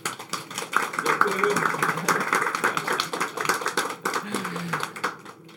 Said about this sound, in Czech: Takže moc děkujeme a poprosím potlesk.